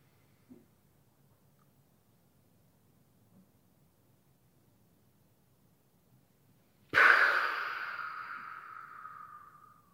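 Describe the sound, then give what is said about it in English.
After several seconds of near silence, a single loud, deep breath through the nose begins abruptly and continues as a steady, airy rush that slowly fades. No one speaks. “One more time. In through your nose.”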